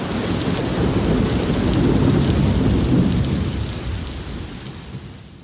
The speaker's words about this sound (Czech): tohle už byla pořádná bouře a vítr a hromy, a díky moc za ten zvuk.